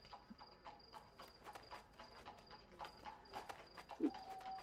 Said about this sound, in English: I just heard the the clip clopping and like I was like, why is there a horse outside? oh. Actually, I was getting the horse and carriage ready when you were saying that. the clip clopping legitimately frightened me just for a second.